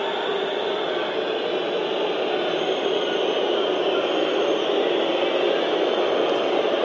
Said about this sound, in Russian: Свист трибун, конечно, из-за того, что Городов достаточно долго вводит мяч в игру.